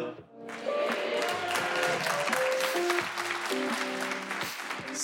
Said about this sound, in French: Il y a vraiment que les meufs qui applaudissent, c'est marrant.